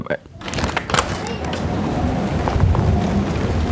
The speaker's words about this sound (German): Es regnet rein!